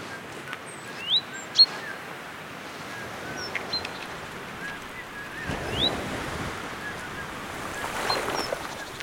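A steady wash of ocean surf with waves swelling and breaking, while a few short bird chirps ring out above the roar.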